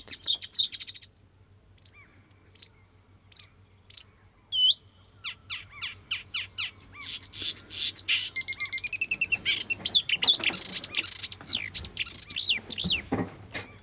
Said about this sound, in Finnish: Semmoista sirkutusta. Aika hienoa.